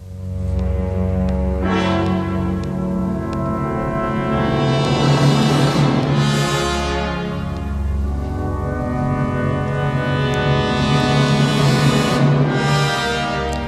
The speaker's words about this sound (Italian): Ci sono alcuni slanci di violini quasi espressionisti che guardano un po' in aria viennese. Ascoltiamolo.